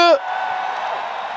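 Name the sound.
festival crowd cheering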